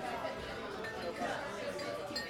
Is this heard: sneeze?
no